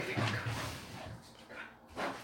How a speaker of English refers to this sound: We've got a dog in the house. It's brilliant.